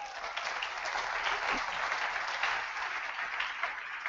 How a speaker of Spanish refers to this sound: Amén. Gloria a Dios, dile un aplauso al Señor.